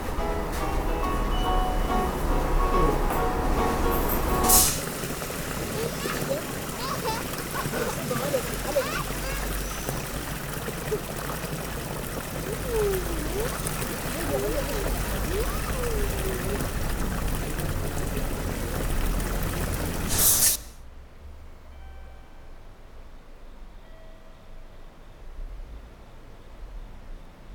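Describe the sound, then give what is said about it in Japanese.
Inside a moving passenger car of a train bound for Shintaka Onsen, stopping at every station, a steady roaring rumble with rattling noise runs for about twenty seconds, marked by a couple of sharp bumps, then suddenly drops to near quiet. “ご乗車ありがとうございます。この電車は新高温泉行きです。”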